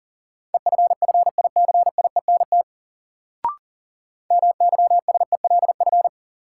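Rapid Morse code word drill at 40 words per minute in a steady mid-pitched tone, keyed in quick dits and dahs across two bursts separated by a pause with a brief click. No voices.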